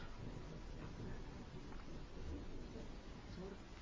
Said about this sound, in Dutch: Hoor ik onweer of zo? Of is dat? Vuurwerk.